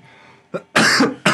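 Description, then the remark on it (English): A short burst of coughing: a small catch followed by two loud, harsh coughs, with a brief pause between them. “I coughed.”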